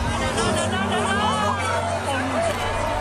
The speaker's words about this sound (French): On entend tous les gens qui sont autour de Notre-Dame qui, crient parce que c'est tellement étonnant de voir cette flèche tomber.